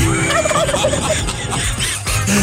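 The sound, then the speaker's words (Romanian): A turkey gobbles in a rapid, bubbling warble, loud, lasting a couple of seconds with no one talking over it. “Băi, tu știi să faci ca curcanul?”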